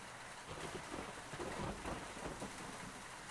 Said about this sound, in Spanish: Después, salió en su camino bajo la lluvia veraniega de la capital.